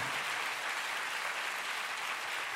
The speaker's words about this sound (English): Can you give the Lord a big clap? Hallelujah. Oh, come on, let's give the Lord a big hand.